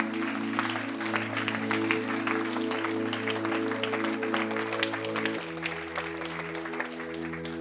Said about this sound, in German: Lass doch mal einen Applaus geben für alle, die das gemacht haben.